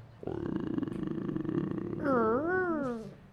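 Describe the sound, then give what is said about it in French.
A chained monster creature thrashes and growls, a low rumbling snarl held for about two seconds before it swells into a louder, wavering roar that rises and falls in pitch and then fades. “Certains sont écrasés par ces chaînes-là qui tombent, alors que la créature se débat et vous entendez son grognement, que tu reconnais aussi.”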